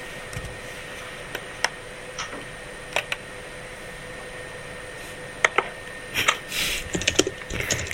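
Irregular clicks of typing on a computer keyboard, sparse at first and then quickening into a busier burst of keystrokes toward the end, over a steady faint hiss with no voices.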